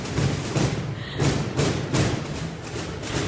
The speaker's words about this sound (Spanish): gaita no, tambores, ¿no? son tambores de Semana Santa, creo, ¿eh? Están pasando ahora mismo por delante del stand del Ayuntamiento de Oviedo. Estamos en la parte superior del mismo. Y ahora es que están pasando.